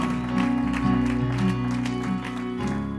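An audience claps and shouts praise to God together, a dense, steady wash of hand clapping and scattered cheering voices over sustained organ-like music.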